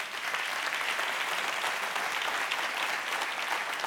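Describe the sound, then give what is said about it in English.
Steady audience applause at Victory fills the whole stretch, a dense, even wash of many hands clapping at once, fairly loud, with no voices rising above it. “Can y'all clap it up one more time”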